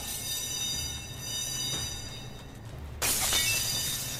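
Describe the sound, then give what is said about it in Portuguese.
A sudden loud crash of shattering and breaking bursts in after a few seconds of low rumbling hum, as objects are violently thrown and smashed, bright debris scattering and ringing on afterward. No one speaks. “Cara, vocês só escutam um barulho estranho, como se tivesse é, alguém correndo, alguém tentando segurar alguma coisa, mas começa tudo quebrar.”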